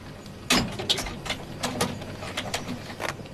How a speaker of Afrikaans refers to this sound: Sluit die deur en kom sit. Sluit, meneer? Ja.